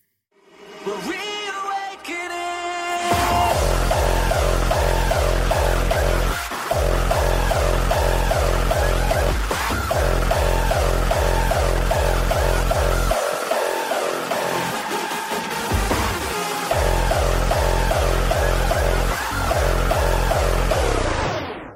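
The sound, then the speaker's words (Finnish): A loud, distorted euphoric-style hardstyle kick drum thumps in a steady, driving four-on-the-floor pattern under bright synth melodies, after a short melodic intro, with brief drops where the beat cuts out. “Ja tämä euforinen style kuulostaa tältä”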